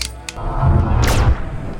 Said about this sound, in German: Ein gut gezielter Schuss reichte, um den mächtigen Pflock zu zerstören, an dem die Kette festgemacht worden war, die die einzelnen Fußketten verband.